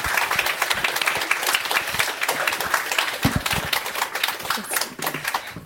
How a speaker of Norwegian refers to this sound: Og gi en applaus her.